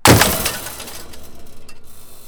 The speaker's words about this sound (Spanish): La lámpara y los cuadros cayeron al suelo.